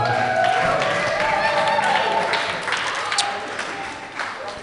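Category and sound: crowd, short applause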